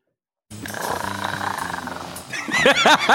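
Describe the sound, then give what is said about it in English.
A big cat's deep, rumbling growl rolls in loudly after a brief silence, then rises into sharp, repeated snarling yowls toward the end, without any talking. “Only get half the cat. you please play the cat?”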